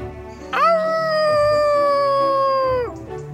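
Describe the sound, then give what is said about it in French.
A wolf lets out one loud, long howl, holding a steady pitch for about two seconds before dropping off at the end, with no talking. “À hurler très fort.”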